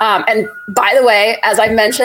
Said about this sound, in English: I live in San Francisco. I don't know if you can hear, there's some truck backing up outside. Um, so, bear with me.